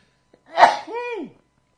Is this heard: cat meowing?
no